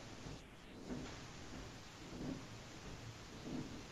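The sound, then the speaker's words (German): A dishwasher pumping in the background: faint, muffled low whooshing surges that swell and fade at a steady rhythm, roughly every second and a half, with no voices. “Ja, da pumpt irgendwas. Ich schätze mal deine Spülmaschine.”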